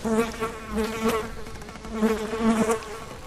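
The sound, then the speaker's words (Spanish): A housefly buzzes steadily, its droning hum wavering in pitch and swelling louder as it circles. No voices are heard. “Es curioso que el silencio sea como la hoja de papel en blanco, en donde se perciba y deposite el zumbido de una mosca.”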